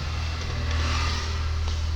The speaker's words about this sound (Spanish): una moto.